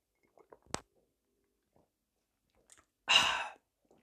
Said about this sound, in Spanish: Bueno, no, al final te van a escuchar tragar agua. Siéntanse halagados porque les muestre cómo trago